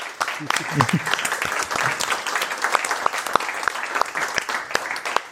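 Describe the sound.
A burst of audience applause, dense irregular clapping sustained throughout, with a few faint voices murmuring briefly underneath near the start.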